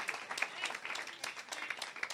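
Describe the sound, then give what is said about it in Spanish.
An audience applauds the Lord during a sermon, many hands clapping in a dense, continuous patter with sharp overlapping claps, fairly loud and without speech over it. “Dale aplausos al Señor.”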